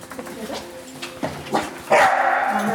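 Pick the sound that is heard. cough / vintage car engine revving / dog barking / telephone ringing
dog barking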